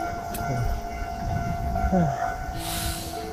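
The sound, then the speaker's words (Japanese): A railroad crossing bell rings steadily as a train rumbles past, its low mechanical drone filling the scene, with a brief hiss of air near the end. “あ、カンカンカンがうるさいし、あの、めちゃくちゃちっちゃい小道でこっちで自転車来てても突っ込んできますね。”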